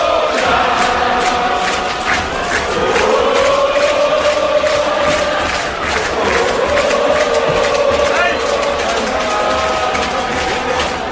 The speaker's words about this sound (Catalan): 5 a 1, golejada gironina a Montilivi encara en queden molts que despleguen bufandes i saluden els futbolistes el crit unànime de... Girona!